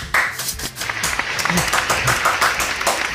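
A few seconds of brisk hand clapping, a quick run of sharp, crisp claps at a fairly steady, loud level, with voices and laughter faintly mixed in underneath.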